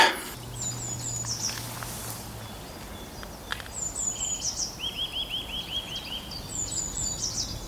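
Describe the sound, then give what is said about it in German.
Several songbirds, blackbirds, finches and tits, chirp and sing outdoors by a lake with woods, with repeated high whistled phrases and a rapid trilling series over a steady low background hum; no one speaks. “Amsel, Fink und Meise, hier ist keiner leise.”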